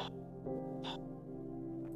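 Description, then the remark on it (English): A long, drawn-out yawn, a steady low groaning tone with a couple of breathy puffs of air partway through, ending still sustained. “Kind of yawn.”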